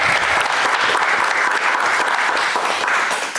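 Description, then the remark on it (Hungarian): A studio audience applauds steadily, dense rapid clapping at an even, loud level throughout, with no voices breaking through, as Hungarian Justice Minister Judit Varga is welcomed as a guest on the show. “Nyilván engem tapsol.”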